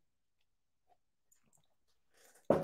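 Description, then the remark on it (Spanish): Someone takes a quick sip of water, with faint mouth clicks and a soft slurp, then a sudden loud thump at the end. Nobody speaks. “Continuando con el chisme, y déjenme tomo agua porque este chisme me llena de rabia y ahorita les voy a decir por qué.”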